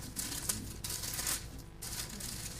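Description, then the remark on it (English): Paper pages rustle and crinkle as they are flipped while someone looks for Psalm 62, a steady shuffling with a few brighter swishes, no voices present. “All this paper ruffling.”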